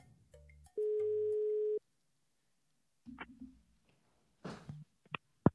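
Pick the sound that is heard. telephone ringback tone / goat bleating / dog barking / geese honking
telephone ringback tone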